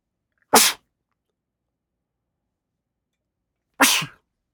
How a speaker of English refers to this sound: Pardon me, I need to sneeze.